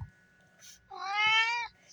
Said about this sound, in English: That's his version of skirt. That's my cat Grayson.